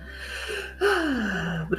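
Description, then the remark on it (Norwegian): A single natural deep breath drawn in, then let out in a long, audible exhale that ends in a soft, falling sigh, clear, with no talking. “Altså en, bare en naturlig dra pusten og puste. Ja, ta inn og puste ut.”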